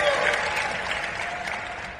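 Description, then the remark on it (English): A crowd claps steadily throughout, a dense wash of many hands at a fairly even loudness with no clear individual claps standing out. No one speaks over it. “Give it up for the non-Arminian Standard Bible translation.”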